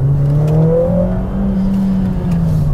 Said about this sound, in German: Was man für ein Geschoss unterm Hintern hat, merkt man trotzdem, wenn man gescheit aufs Gas steigt.